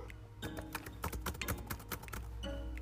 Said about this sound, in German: Hier, Tastatur.